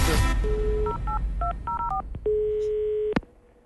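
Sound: telephone number being dialed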